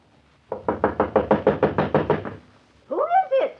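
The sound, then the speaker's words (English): A rapid, evenly paced run of about a dozen loud knocks on a fortune teller's door, hammering steadily for two seconds, then a short call from a voice. “You knock like the very devils behind you.”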